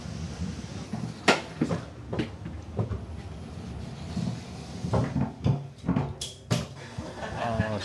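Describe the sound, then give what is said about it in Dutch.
A small gate that only one person can pass through at a time opens and shuts with a series of sharp clicks and clunks, spaced irregularly over a low background rumble and faint murmuring voices. “want dit poortje door kan maar één man tegelijk.”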